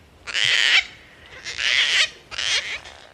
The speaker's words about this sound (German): Auf der CD hört man zum Beispiel den Helmkakadu, der nur im Südosten Australiens lebt.